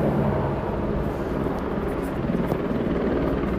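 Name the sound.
helicopters hovering overhead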